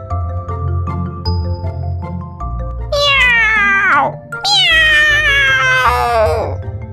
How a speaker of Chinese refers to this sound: 一阵恐怖的猫叫声打破了夜的宁静